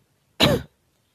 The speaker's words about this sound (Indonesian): apa ya batuk-batuk nih gara-gara pergantian musim kemarin sempat nggak hujan berapa hari sekarang tiba-tiba hujan lagi